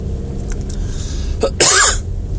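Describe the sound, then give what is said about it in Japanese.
A single harsh cough bursts out after a short preceding catch of breath, loud and raspy against a low background hum, with no talking. “咳出ました。”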